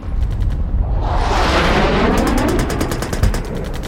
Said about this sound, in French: l'armée avançait. on entendait les bruits de canon, euh, les tirs. Donc on se disait peut-être qu'un obus pouvait tomber sur la maison.